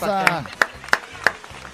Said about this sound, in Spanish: güey, dos lunes que no falta su trabajo. Sí, es un aplauso, güey.